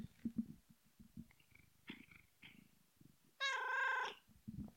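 cat purring and meowing

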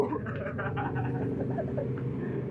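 passing motorcycle engine

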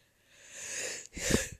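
yawn

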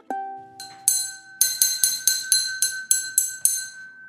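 glasses clinking

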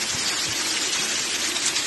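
hailstones falling

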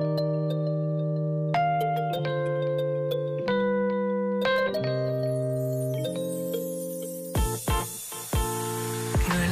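song intro music playing

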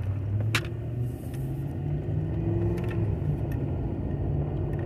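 car interior road rumble

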